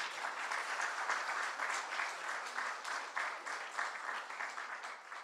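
A crowd claps steadily for several seconds, a dense, even wash of many hands with no voices standing out, holding a fairly constant loudness throughout.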